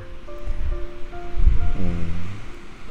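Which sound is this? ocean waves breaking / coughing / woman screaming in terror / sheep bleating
ocean waves breaking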